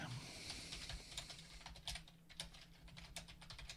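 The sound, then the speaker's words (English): Rapid, uneven keyboard typing with clustered key clicks, steady, over a faint background hiss and low hum; no one speaks. “Are you typing it? Why are you Why are you doing it through the medium of typing?”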